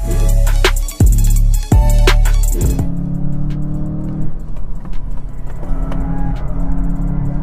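A sedan weighing over 1,450 kg, with a seven-speed DQ381 oil-bath gearbox, accelerates hard from 0 to 100 km/h. Its engine roars loudly, the pitch climbing and then dropping sharply at three quick gear changes before settling into a steady, high-revving drone. No one speaks.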